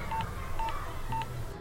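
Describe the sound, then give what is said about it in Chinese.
Three short electronic beeps from a telephone keypad being dialed to call a seller, evenly spaced about half a second apart, each a steady mid-pitched tone over a low background hum, with no talking. “有哎，他有留下电话号码， 那赶快打电话给他。”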